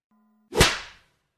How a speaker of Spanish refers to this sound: procede a darle una cachetada.